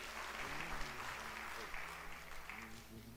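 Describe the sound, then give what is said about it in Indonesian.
An audience at a worship service applauds steadily for the name of God, a dense wash of clapping from many hands, with a voice faintly audible underneath. “Berikan tepuk tangan bagi nama Tuhan.”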